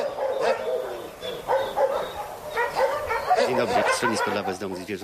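dogs barking

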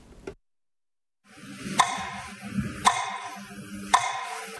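clock ticking

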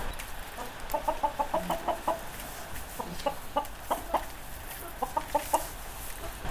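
chickens clucking

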